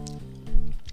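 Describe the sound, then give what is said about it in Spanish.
A sip of water with ice, with brief wet slurping noises at the start and end over a low, steady hummed tone. “Eh, ah, le voy a dar un trago a mi agua.”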